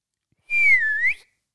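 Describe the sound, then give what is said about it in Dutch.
A single clear whistle, held for under a second with a slight dip and rise in pitch, loud with no voices around it. “Want eh, dus, ze, ze roept me toe, ze fluit ja, me toe.”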